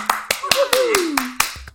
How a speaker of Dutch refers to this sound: Mag ik een applaus voor Fleur Jong?